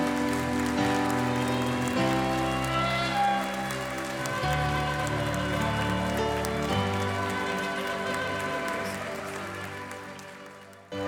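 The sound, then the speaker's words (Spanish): An audience claps steadily in a dense, sustained patter that runs the whole time, mixed with loud keyboard music holding chords, before fading slightly near the end. “Vamos a darle un fuerte aplauso al Señor.”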